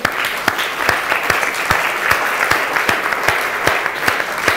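An audience applauds the Lord steadily, a dense wash of clapping with sharper individual claps popping out irregularly, sustained at an even, fairly loud level throughout with no talking.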